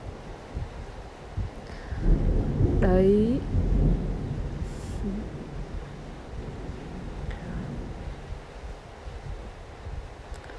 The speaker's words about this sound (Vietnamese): và bây giờ nó lại mưa tiếp thỉnh thoảng lại có sấm chớp các bạn có nghe không